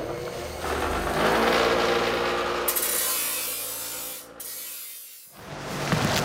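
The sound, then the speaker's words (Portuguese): A freshly sharpened shovel scrapes and grinds into hard earth in a steady, harsh rasping stretch of about four seconds, then pauses briefly before scraping again. No one speaks. “Aí eu vou molar porque a terra lá é um pouco dura. Vai fazer um barulho aqui, tá?”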